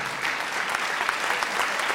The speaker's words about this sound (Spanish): Están identificados los que aplauden también.